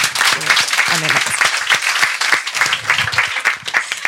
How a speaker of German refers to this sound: Wer sagt, ja, das ist, das ist noch offen, vieles noch offen, Fragezeichen, aber da kann ja auch viel dann noch passieren. Wer einmal klatschen? Okay.